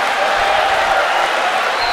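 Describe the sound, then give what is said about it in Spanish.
An audience applauding, a dense, steady wash of many hands clapping that stays loud and even for about two seconds without a break. “Fuerte aplauso, vamos con la pregunta, vamos con la pregunta.”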